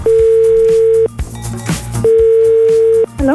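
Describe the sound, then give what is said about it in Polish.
A telephone dial tone as the RMF FM radio station calls a listener, sounding twice, each a steady mid-pitched beep lasting about a second with a one-second gap between, loud over quieter background music. “Dzwonimy tam.”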